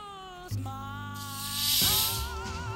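A beer opens with a sharp click, then a prolonged fizzing hiss that swells and fades over about a second, close by, over a steady tonal hum in the background.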